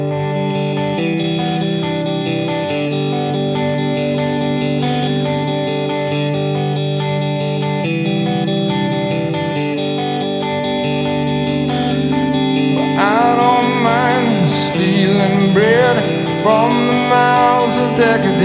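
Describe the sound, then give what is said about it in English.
A rock song opens with a steady, effects-laden electric guitar riff, full and sustained at a strong, even level; a sung voice seems to slide in over it toward the end. “I noticed there's like both songs start off with this like guitar little riff at the beginning.”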